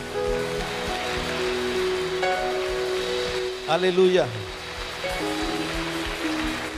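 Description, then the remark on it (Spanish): An audience claps loudly and steadily for the Lord on an afternoon, a dense crackling wash of applause lasting throughout, with a man's voice calling out briefly midway and a soft sustained musical tone underneath. “Oh, si eres bendecido en esta tarde, dale un aplauso fuerte al Señor.”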